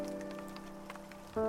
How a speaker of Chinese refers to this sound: 这一幕本应显得很诡异，瓢泼的雨水不断从我身体里穿过。